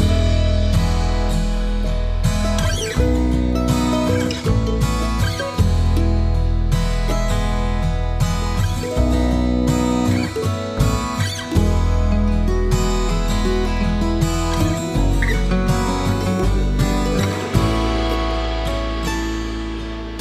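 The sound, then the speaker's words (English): A full-band song plays steadily at a strong, even volume, with deep bass, sustained chords and a rich layered mix, and no talking over it. “The song is … by ….”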